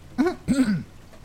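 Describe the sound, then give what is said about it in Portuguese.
A soft throat clearing, two quick voiced rasps in succession, fairly quiet, followed by a faint background hiss with no speech. “Foi então, quando estava de costas para a sala, que ouviu um leve pigarro.”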